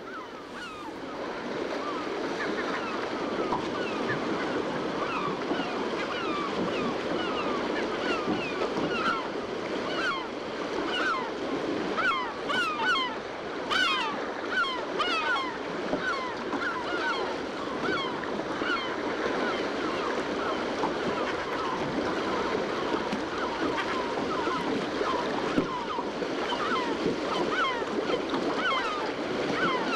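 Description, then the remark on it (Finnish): A dense chorus of about 30 herring gulls calling over one another, recorded from a boat, continuous and overlapping, set against steady wave wash and engine-like rumble from the boat, making a busy, noisy seascape. “Ja sitten aallokon saaminen aallokoksi, vaikka se ei ole kovin kova, niin se on aika hankalaa, että se voi muodostaa vähän semmoisen kohinamaisen maiseman, mutta tässä on 30 harmaa lokkia äänessä.”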